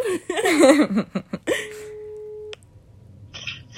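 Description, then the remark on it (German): A steady phone ringing tone sounds once for about a second while placing a call, clear, after a burst of chatter and laughter, then a quiet pause. “komm, lass Matze anrufen. Okay, ich bin gerade dabei.”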